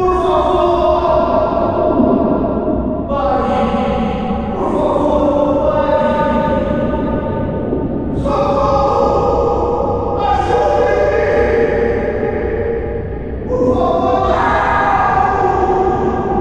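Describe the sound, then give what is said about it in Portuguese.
Anguished, overlapping voices of a tormented creature wail and cry out, pleading for help and mercy, with heavy echo through cold corridors, rising and falling in long drawn-out moans across a dense, reverberant backdrop, with no clear words. “Esses são os gritos desesperados que podemos escutar ecoando pelo ambiente.”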